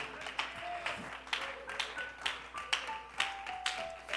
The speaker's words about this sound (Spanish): Colóquese de pie y si usted anhela esa bendición, dele ese aplauso al Señor con júbilo, con gozo, con alegría, con esperanza.